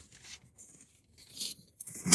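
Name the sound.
paper pages being turned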